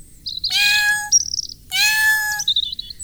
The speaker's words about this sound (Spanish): Él es mi gato y se llama Sakuchan. ¿Qué estás haciendo, Sakuchan?